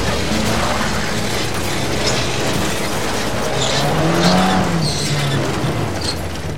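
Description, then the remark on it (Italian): A Fiat 1300 roars loudly, its tires letting out several sharp, high squeals in short bursts over a steady rumble of engine and road noise as another car squeezes it and forces it to a stop against a wall, with no voices. “La sua Fiat 1300, guidata dall'agente di custodia Antonino Lorusso, viene bloccata da un'auto che la stringe fino a fermarla contro un muro.”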